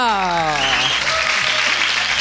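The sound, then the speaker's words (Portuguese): A short exclaiming voice gives way to a burst of dense, steady applause for the city of Londrina, Brazil, with many hands clapping in a loud continuous wash for about two seconds. “Palmas para Londrina!”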